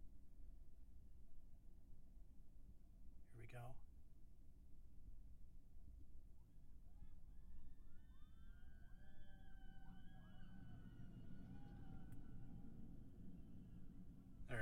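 Anticipatory screams from several riders on a passing ride cart, overlapping wavering cries rising and fading over a steady low rumble, with a brief knock early on.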